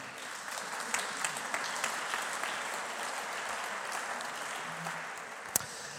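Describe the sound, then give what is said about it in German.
Steady audience applause welcoming an interview guest onto the stage fills the whole stretch, a dense wash of many hands clapping at an even level, with a few sharper individual claps standing out, and no one speaking. “Herzlich willkommen, ein Applaus für ihn.”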